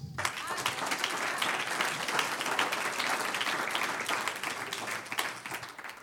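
An audience applauding the Lord during a sermon, steady dense clapping from many hands at a fairly loud, even level for about six seconds, with no speech over it.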